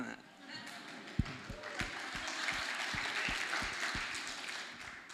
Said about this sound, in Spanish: Un aplauso